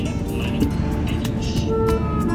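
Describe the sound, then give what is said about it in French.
Steady low rumble of road and engine noise from inside a moving car driving in southern Spain, Andalusia, continuous and fairly loud, with faint tonal hums and a few soft clicks riding on top. “voiture, au sud de l'Espagne, Andalousie.”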